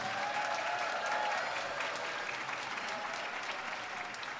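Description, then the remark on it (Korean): A Christmas festival audience applauds steadily for the Oneness Orchestra Philharmonic after its Christmas carol medley, a dense wash of clapping that holds at an even level throughout, with a faint tonal murmur underneath early on and no speech over it. “우리 크리스마스 캐롤 메들리로 첫 무대를 아름답게 꾸며준 원네스 오케스트라 필하모닉을 위해서 다시 한번 뜨거운 박수 부탁드립니다.”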